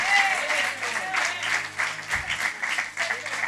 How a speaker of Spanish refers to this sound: Dale un aplauso fuerte que lo oiga el infierno, los demonios y los que no creen en ti, porque en algún momento van a ver a Dios operar.